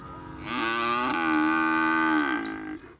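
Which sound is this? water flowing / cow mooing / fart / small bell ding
cow mooing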